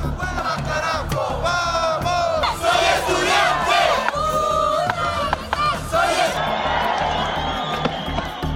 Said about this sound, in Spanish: Escuchaban el llamado de los manifestantes en Ecuador, donde la comunidad indígena completa una semana de protestas contra el gobierno de Guillermo Lazo.